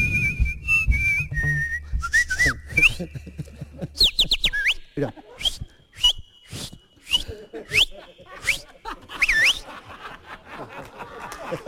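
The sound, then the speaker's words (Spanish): A person whistles a lively, warbling tune with rapid pitch slides and trills, fairly loud, with brief laughter and low voices underneath at the start. “Un aplauso al profesional, profesional del silbido.”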